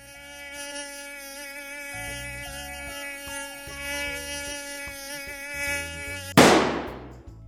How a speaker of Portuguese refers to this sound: Você levanta, vai buscar um inseticida, espalha inseticida no quarto até ficar intoxicado, o danado do mosquito some, você vai se deitar.